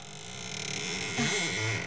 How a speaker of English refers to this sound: It doesn't sound as though that door had ever been opened. Well, a little oil on the hinges will fix that, all right.